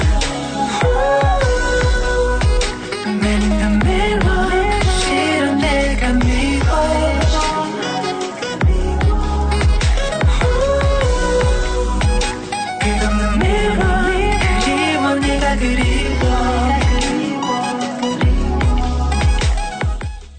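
A K-pop song plays loud and steady throughout, with melodic sung vocals over punchy bass beats and dense, polished backing production, close and filling the whole clip.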